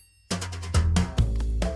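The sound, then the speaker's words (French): A bright, ringing timer bell marking the end of the timed segment sounds abruptly after a short silence, struck a few times in quick succession with shimmering overtones that sustain and overlap, fairly loud. “on vient d'entendre la, sonnette du top chrono.”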